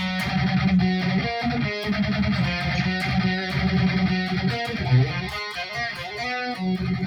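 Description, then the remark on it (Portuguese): A distorted electric guitar riff plays for several seconds, dense and gritty, with repeated low chugging notes and quick melodic runs at a steady, loud level. No one speaks. “Eles têm uma parte muito fixe nesta música.”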